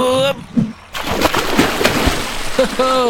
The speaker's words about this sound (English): You want to go up and swing off the branch into the water.